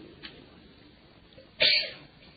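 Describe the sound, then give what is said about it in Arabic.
A single sharp sneeze bursts out loud after a stretch of quiet background noise, a sudden explosive blast of breathy hiss that quickly fades away. “رحمك الله”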